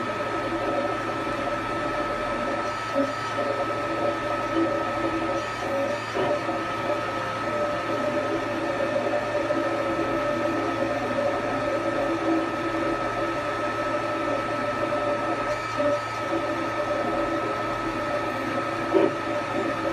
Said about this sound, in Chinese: 这就是一个 3D 打印机，这打印的是一个小鳄鱼。